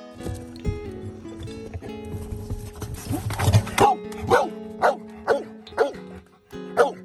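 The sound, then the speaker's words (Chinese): A black Labrador search-and-rescue dog named Zixie barks repeatedly in a steady series of sharp, loud woofs, about six in a row, after a few seconds of muffled rustling and lower noise, while searching for traces of people at a rubble training base. “你刚刚听到这个声音，来自于一只黑色的拉布拉多犬，它叫子歇，正在一片废墟训练基地搜索着人类的踪迹。”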